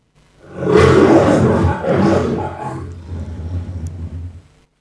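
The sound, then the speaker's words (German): A person imitates a lion's roar, one long, loud, rough bellow that rises fast, holds for a few seconds, then trails off into a lower growl, with no talking. “Ein Löwe brüllt nicht nur, um irgendjemand etwas zu sagen, sondern ein Löwe brüllt auch für sich selber.”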